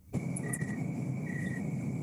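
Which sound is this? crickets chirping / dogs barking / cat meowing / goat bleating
crickets chirping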